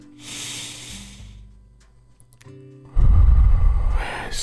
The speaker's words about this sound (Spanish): Eso es. Seguimos inhalando y exhalando. Quiero que seas consciente de esta respiración. Sigue inhalando fuerte pero sin lastimarte.